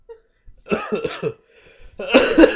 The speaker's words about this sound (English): Oh god, that was gonna fucking cough again.